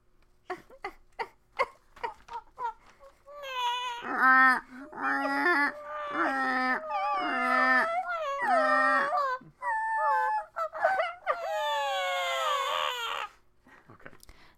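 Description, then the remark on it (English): Babies crying loudly at a meeting in long, wavering wails, several cries overlapping near the end, preceded by a few seconds of sharp clicks and taps. “those babies that were crying just now were recorded at my meeting that I am talking about as I sit on the corner of Pleasant and Water, speaking into my recorder.”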